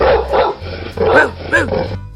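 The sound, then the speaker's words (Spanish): A dog barks four or five short woofs in quick succession with brief pauses between them, fairly loud and clear with no other sounds around. “Un día la mamá de Rocco se cansó de los caprichos de su hijo y le dijo ladrando con cariño.”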